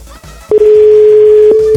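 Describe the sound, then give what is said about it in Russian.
A telephone ringback tone sounds once, a steady low beep that starts after a short pause and holds for over a second, clear and fairly loud with no talking over it. “Ну, ну настолько я мужчина, чтобы она понимала, что у нее звонит телефон.”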